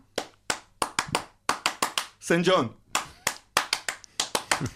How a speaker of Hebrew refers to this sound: כולכם הולכים להכיר את מחיאות הכפיים האלה זה הולך ככה.